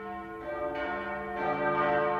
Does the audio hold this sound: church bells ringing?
yes